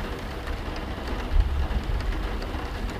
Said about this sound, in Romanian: Of, de ce trebuie să plouă așa de toamnă? Răbuvni supărat nepotul cel mare. Încă puțin și o să ne trebuiască barcă să putem ieși din casă.